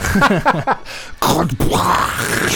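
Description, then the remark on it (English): Someone vocally imitates a big explosion, starting with a rough, groaning voiced rumble, then breaking into two loud, breathy blasts that trail off in a hissing roar. “It's my favourite explosion sound, that is explosion 10.”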